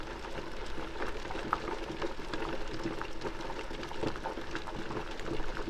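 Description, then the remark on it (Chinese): Water bubbling in a cooking pot, a steady dense gurgle of small pops and burbles at moderate level, continuous with no voices. “哇，我们一起跳到锅子里面了。你的身体全部泡在这个热热的水中”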